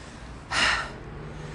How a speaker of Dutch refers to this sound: echt aan het hijgen, omdat ik aan het kauwgom kauwen ben en aan het wandelen tegelijk. En mijn conditie is naar de shit.